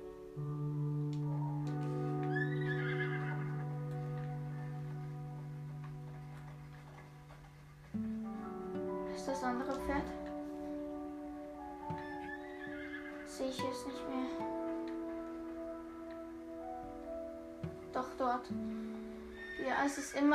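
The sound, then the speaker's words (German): A horse neighs, letting out several shrill, quavering whinnies a few seconds apart over a steady low background. “muss mal diesen Ort da, wo ich gerade stehe, mal markieren, weil ich weiß, irgendwo in der Nähe muss ich immer das Pferd befinden wahrscheinlich.”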